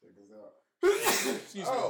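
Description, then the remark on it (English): A loud sneeze bursts out abruptly after a bit of quiet talking, followed by a brief voiced exclamation as someone reacts. “bless you”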